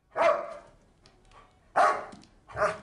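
A dog barks three times, loud, with a long pause after the first bark and then two quicker barks in succession. No one speaks.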